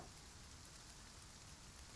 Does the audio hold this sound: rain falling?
yes